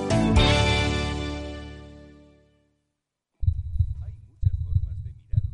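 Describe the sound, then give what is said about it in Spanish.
A resonant swelling tone rings out and fades, then after a brief silence a heartbeat sound effect starts, with deep thumping pulses repeating about once a second. “Escucha el latido de los mercados en Capital Radio.”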